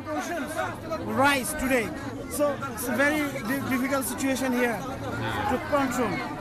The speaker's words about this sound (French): La foule est agitée et pousse de plus en plus vers la porte en fer qui abrite le centre de distribution. Les hommes pressent d'un côté de la rue et de l'autre les femmes, souvent accompagnées de petits-enfants, perdent patience.